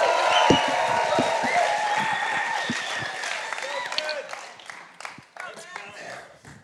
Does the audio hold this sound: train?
no